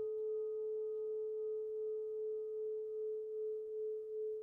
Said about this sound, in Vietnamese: hình dung âm thanh của tiếng chuông massage cho đôi chân